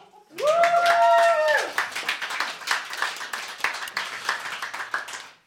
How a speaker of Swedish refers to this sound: Applåd!